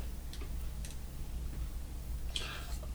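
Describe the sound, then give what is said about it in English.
Moody the cat purrs in a steady, low, rumbling drone that continues throughout, with a few faint clicks and rustles over it and no one talking. “Oh my god, I can hear Moody purring.”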